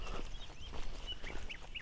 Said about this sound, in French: Et les oiseaux gazouillent